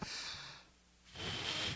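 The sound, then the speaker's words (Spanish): A person demonstrates forced breathing with two forceful, breathy blasts of air blown out, separated by a brief pause, with the second gust slightly louder and harsher than the first. “pero forzada. O soplar con fuerza.”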